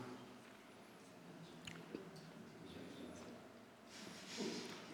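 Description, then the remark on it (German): Quiet chewing of a gummy bear: soft, wet squishing and smacking with a few sharper clicks, repeated irregularly over a few seconds with no talking. “Und dann so ganz bewusst das Kauen und Killen.”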